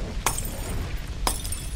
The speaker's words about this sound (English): In February 1954, a custodian was cleaning floors when he heard light bulbs exploding near the furnace room.